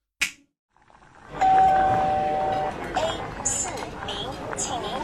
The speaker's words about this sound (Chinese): 怎么样？有没有感觉我们已经身处在这个火锅店里面了？